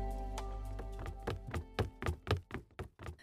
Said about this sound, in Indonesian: Terdengar langkah kaki dari beberapa orang pria. Mereka sedang menaiki tangga. Yang awalnya cepat, namun berangsur melambat.